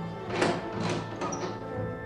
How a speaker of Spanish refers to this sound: Cuando salió el diplomático, Amaranta echó el cerrojo de la puerta.